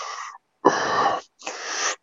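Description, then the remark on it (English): A voice imitates the wheezy, labored breathing of a man with COPD in three strained, raspy breaths, each rough and drawn out with short pauses between, fairly loud. “He'd be breathing, be like,”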